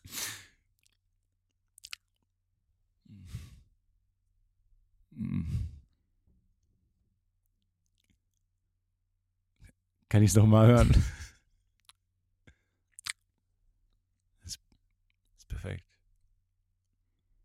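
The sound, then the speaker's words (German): Several moist mouth smacks and clicks made close to a person's ear as part of a bet on whether they sound too dry or too wet, spaced irregularly, with a brief spoken question in between; the wet sounds are intimate. “Zu trocken oder zu feucht? Ach so, zu, zu feucht, wenn dann.”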